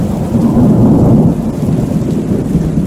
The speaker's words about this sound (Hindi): मूसलाधार बारिश हो रही थी और वो कमरे में बैठा जल थल देख रहा था बाहर बहुत बड़ा लॉन था जिसमें दो दरख्त थे उनके सब्ज पत्ते बारिश में नहा रहे थे